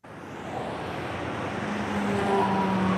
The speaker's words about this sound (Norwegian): Vi tar The Baltimore Washington Parkway, en firefelts motorvei som går nordvestover fra den amerikanske hovedstaden. Vi kjører gjennom flotte boligområder, skoger og enger.